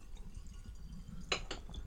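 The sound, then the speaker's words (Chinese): Water being poured from a vacuum-insulated kettle with a funnel-shaped design: a low, steady rumble of liquid, then a few short, bright splashing drips near the end. No one speaks. “你这样可以倒吗？”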